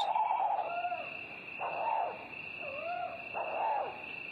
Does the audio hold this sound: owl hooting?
yes